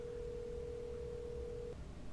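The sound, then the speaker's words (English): A steady, single-pitch cell phone dialing tone hums continuously for almost two seconds at 3 a.m. in a dorm room, then cuts off abruptly, leaving only a faint background hiss. “She turns on the overhead light, dials Rebecca.”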